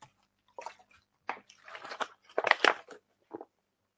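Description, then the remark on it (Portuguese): A person drinking water: a series of quiet, wet gulps and swallowing sounds in short irregular bursts, with no talking. “É, deixa eu só beber uma água aqui que.”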